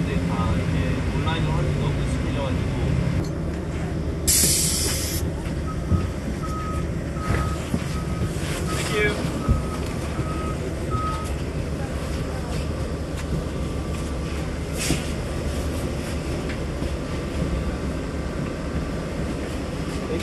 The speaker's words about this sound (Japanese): バス来たバス来たよかったよかった